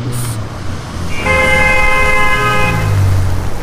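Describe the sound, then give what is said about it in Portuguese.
Busy traffic on a wide avenue jammed with cars, with a steady low engine rumble, broken by a long, sustained car horn blast in the middle, with another vehicle droning. “Avenida larga, entupida de carros.”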